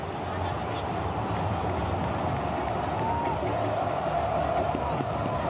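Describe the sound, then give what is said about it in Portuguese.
A steady, dense roar of a large football crowd at the Milton Santos stadium during a São Paulo match, broad and continuous with a swell of cheering voices delighting in a player's play, blending into a constant wash of noise, no single voice standing out. “Joel Carli, para delírio da torcida.”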